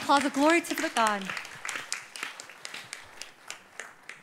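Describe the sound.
A voice calls out briefly, then a crowd bursts into applause offered as glory to God, a dense patter of clapping that stays steady and moderately loud before thinning toward the end.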